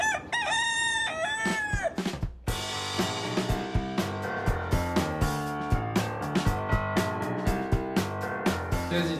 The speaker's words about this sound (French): Générique